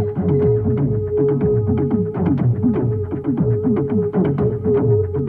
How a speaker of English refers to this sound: And I figured I'd just sit on the couch for a second and enjoy the fire and watch my Christmas tree sparkle when suddenly I didn't hear sleigh bells, but I, I heard tom toms.